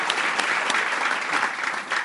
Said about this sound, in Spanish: Gracias, porque ustedes han pasado aquí por todas y se siguen manteniendo y ellos se merecen el aplauso más grande de todos, porque sin ellos ninguno de ustedes estaría aquí.